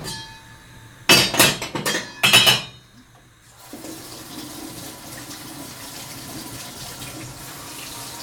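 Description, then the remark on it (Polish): Loud bursts of splashing water under a running tap as peeled vegetables (carrot, parsley root, celery) are rinsed in quick passes before going into the pot, then the tap settles into a steady, softer flow. No one speaks. “więc tak samo pozbywamy się całej matowej skórki z marchewki, z pietruszki, kory z selera, opłukujemy warzywa i do gara.”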